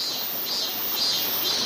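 A robust cicada chirrs loudly and continuously from weeping willows on a riverbank on a hot early-July afternoon, a dense high-pitched buzz that swells and pulses slightly without pause, filling the whole moment with no voices.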